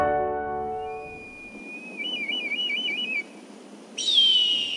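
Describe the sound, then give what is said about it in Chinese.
A bald eagle's call: a thin, high whistle that wavers into a rapid warbling trill, then breaks into a louder burst of sharp, descending chirps. No one speaks. “这是老鹰的叫声。”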